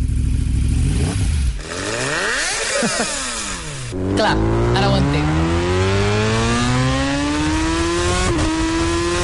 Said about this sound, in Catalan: imitant la intensitat i la velocitat i la potència d'un eh, Superbike